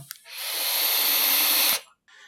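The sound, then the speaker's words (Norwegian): A small click, then one steady, airy hiss of an e-cigarette (vaping device) being puffed, lasting about a second and a half, fairly loud before cutting off abruptly. “Uh, nei, det vi hørte der, det var en e-sigarett eller et, et vapeapparat”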